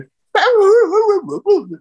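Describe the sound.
A person mimics dogs barking, a loud, drawn-out, wavering yowl followed by two shorter yelps, all in a single human voice.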